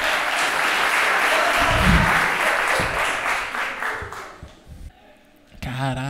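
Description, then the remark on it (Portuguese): A stand-up comedy audience claps steadily in a dense, loud wash of applause for about four and a half seconds, then it thins out and fades, and a voice cuts in at the end. “Salva de palmas.”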